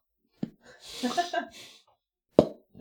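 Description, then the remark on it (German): Two sharp, hollow plops about two seconds apart, fairly loud, as a top hat is pulled off someone's head, with soft breathy vocal noises and murmuring filling the gap between them. “so klingt das. Mit einem Plop äh, befreist du deinen kleinen Bruder oder also deinen mittleren Bruder aus der Dunkelheit.”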